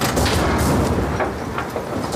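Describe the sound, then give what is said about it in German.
A deafening airplane crash impact as the plane's right wing strikes a mountain: a continuous roar of loud, rumbling noise broken by several sharp cracking bursts, with no voices. “Dann kracht es ohrenbetäubend laut.”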